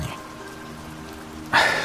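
Steady rain falls throughout, a dense hiss of drops with a low rumble underneath, then a brighter, louder spatter near the end as the downpour intensifies. No voices.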